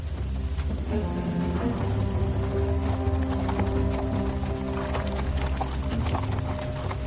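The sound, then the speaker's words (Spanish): Horses of a Dothraki caravan led by Khal Drogo on the move along a path through the tall grasses of the Dothraki sea, with Jorah Mormont riding beside Daenerys: a dense, steady clatter of many hooves clip-clopping without pause over a constant low, humming background, with no speech. “Yorag Mormont cabalga junto a Daenerys que viste atuendo Dothraki.”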